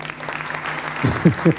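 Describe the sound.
A crowd claps steadily, a dense crackling patter that holds at an even level, while a voice speaks over the applause toward the end.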